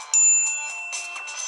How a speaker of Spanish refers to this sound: Antes de comenzar, publicamos videos a diario, así que suscríbete y activa la campana para recibir notificaciones de nuestros nuevos videos.